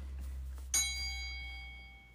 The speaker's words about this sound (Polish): Dzwonek działa.